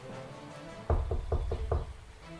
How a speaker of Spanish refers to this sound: Eh, me voy a acercar a la puerta y voy a tocar la puerta.